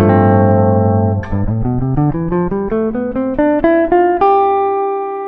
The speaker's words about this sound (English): Right? And now if you have that G7 sus4